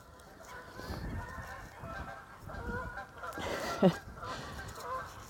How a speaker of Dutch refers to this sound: Ik loop in een stukje, klein stukje natuurgebied bij mij in de buurt. En eh, net al de eenden een beetje in paniek en nu al de ganzen.